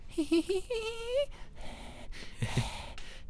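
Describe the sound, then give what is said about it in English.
Someone imitates the creepy heavy breathing heard on a menu screen: a drawn-out, rising whimpering tone followed by a few rasping, breathy exhales and inhales. “It's breathing.”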